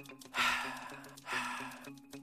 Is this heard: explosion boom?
no